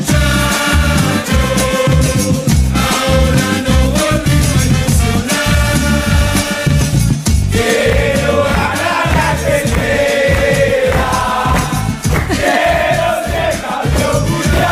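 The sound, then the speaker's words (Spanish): A group of football players sings a rowdy fan chant together in the locker room, loud and continuous, mixed with the original song with a steady beat for about fifteen seconds. “hemos mezclado la original y la de los jugadores en el vestuario cantándola y suena así.”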